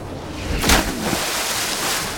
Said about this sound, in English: Well, least that crash was in the ocean water, so it didn't hurt as much. The water broke my landing.